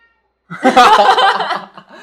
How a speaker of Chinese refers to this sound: 这一集真的很身临其境哎，因为猫现在叫了一声，